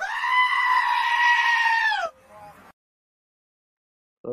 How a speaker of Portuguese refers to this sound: o bode berrador aí, ó.